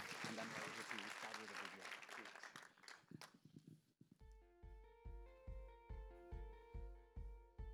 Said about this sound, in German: Ihr dürft ihm nochmal einen Applaus geben und dann werden wir dich hören.